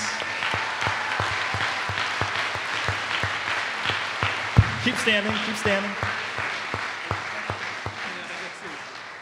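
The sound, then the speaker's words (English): Sustained crowd applause for young people who raised their hands about serving in the church, with a steady, rhythmic clap pattern throughout, while a voice speaks briefly over the clapping partway through. “Let us give them a round of applause.”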